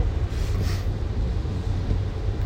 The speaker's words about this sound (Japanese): 今日福岡県は雨が降ってますね今あの整骨院に向かって車を走らせてるとこなんですけど